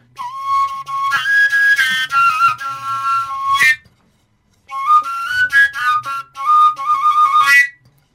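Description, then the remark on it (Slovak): A folk pipe a few centimetres shorter than the previous one, pitched around C, plays a bright, breathy, high-pitched melody in two phrases with a brief pause between them. The notes step and flutter upward, fairly loud, with no voices. “toto, pozri sa, o trošku kratšia, tak to už je asi tak cicko, hej?”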